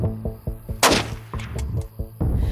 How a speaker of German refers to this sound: Ein Schuss fällt und hallt durch die Nacht.